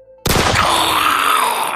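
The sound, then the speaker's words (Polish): A single loud pistol shot cracks out suddenly after a quiet moment, then a long, dense echo rolls on and fills the space for over a second, with no voices. “Huk pistoletu poniósł się echem po okolicy.”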